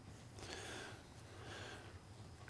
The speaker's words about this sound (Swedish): Det låter som kattuggleungar. Och det låter som flera, inte bara en? Ja, två stycken minst. Kattuggleungar.